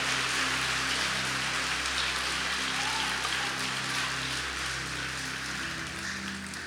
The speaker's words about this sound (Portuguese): Se você crê nisso, meu irmão, por favor, dá um aplauso para Jesus aí. Celebra ele o mais forte que você puder.